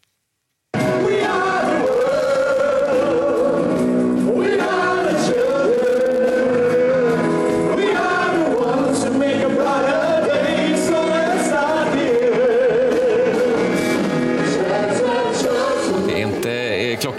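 NATO foreign ministers in 2015, the NATO choir, sing together in a ragged, off-key chorus, loud and continuous for about sixteen seconds, with wavering pitch and no speech.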